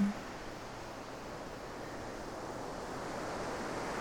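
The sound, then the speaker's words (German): Steady roar of ocean surf breaking on a beach, a broad continuous wash of waves that swells slightly louder toward the end, with no voices. “Das Rauschen des Meeres”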